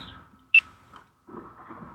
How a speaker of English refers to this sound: That's my phone.